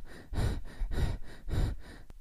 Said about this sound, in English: The first type is clavicular breathing. It's very superficial, and we usually do this when we are scared.